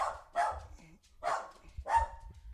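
Dogs bark three times in uneven succession, each bark a short, fairly loud burst, with brief pauses between and no talking.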